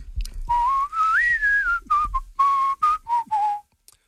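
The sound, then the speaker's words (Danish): Someone whistles a catchy pop tune, a clear pitched line sliding up and down in short phrases with brief breaths between them, no talking. “jeg føler selv, at jeg er rimelig god til at fløjte.”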